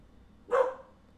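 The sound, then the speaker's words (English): A single sharp bark from a female dog rings out against a quiet, low background hum, fading quickly with a short tail. No one speaks. “The dog needed to re up on a treat so she would stop barking.”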